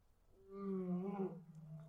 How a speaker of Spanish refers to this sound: no sé si se escuchan los leones rugiendo. ¿Crees que lo capte el micrófono?